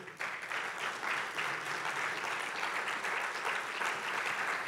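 A church audience claps steadily for God, a dense wash of many hands that holds at an even, moderate level throughout without voices rising above it.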